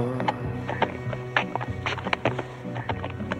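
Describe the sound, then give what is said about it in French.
Hooves clip-clop at a steady walking pace, a series of crisp knocks about twice a second, over a low humming background with no talking. “Alors, tu t'endors Oh, tu marches plus”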